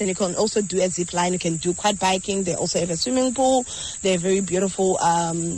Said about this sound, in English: you hear the crickets in the background